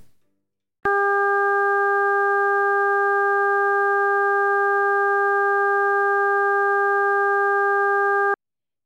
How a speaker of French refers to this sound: Là, vous allez entendre un son harmonique, d'abord à 400 Hz, puis 800, 1200 et 1600, créé par Laurent Demagny.